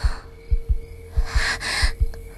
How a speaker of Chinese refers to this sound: 木英想大叫，可口里只发出细微的嘶嘶声。